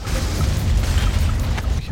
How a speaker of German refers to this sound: die Tankstelle gerade explodieren lassen.